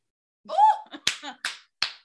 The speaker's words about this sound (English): There's a lot of claps in this episode.